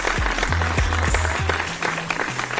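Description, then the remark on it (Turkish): A dense wash of clapping, like a crowd applauding, runs steadily throughout, with a few deep thumping pulses underneath. No one speaks. “Evet dostlar On Net Radyo'da İzmir'in en net radyosunda bu güzel çarşamba akşamında Olca ile Şamata'da benimle olduğunuz için beni yalnız bırakmadığınız için öncelikle kocaman alkışları sizlere gönderiyorum.”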